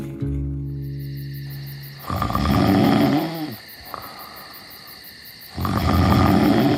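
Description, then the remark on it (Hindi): Two loud, rough, rumbling snores from Bhima, waking Kunti, separated by a quieter pause, following a brief sustained musical tone at the start, with a steady high insect-like hum underneath. “तो अच्छा हुआ कि भीम के खर्राटों से कुंती की नींद टूट गई”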